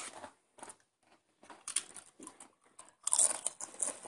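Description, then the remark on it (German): Irregular bursts of crisp, crackly crunching from potato chips from a chip bag being chewed, with bright hissy bites clustering and growing louder toward the end; no one speaks. “ah, du kannst die Chips-Packung nicht behalten.”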